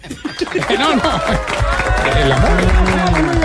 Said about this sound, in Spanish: Por eso quiero pedir un fuerte aplauso para esas mujeres que lo dan.